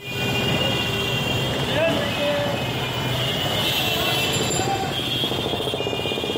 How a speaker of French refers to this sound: L'Inde charme ou terrifie les voyageurs avec sa circulation saturée, ses concerts de klaxons et ses trains bondés.